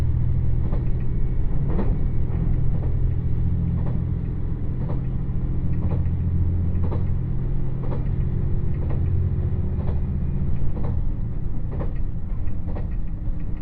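The Dosan Line limited express Nanpu No. 26 in Japan, travelling from Awa-Ikeda to Tadotsu, runs steadily along the rails: a continuous low rumble with a regular clickety-clack of wheels passing rail joints, loud and unbroken with no voices.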